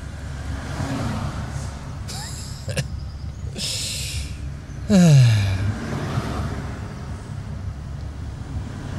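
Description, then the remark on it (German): Steady low engine rumble of cars and trucks idling in a traffic jam on a winding road, with a couple of sharp hissing bursts like truck air brakes and a brief descending mechanical whine partway through. “Jetzt stehe ich auch noch hier im Stau.”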